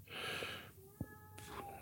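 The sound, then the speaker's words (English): A male cat named Chad whines softly, starting with a breathy, wheezing exhale and trailing into a thin, drawn-out tonal cry, with a small knock partway through. Quiet, no talking. “He's back here whining.”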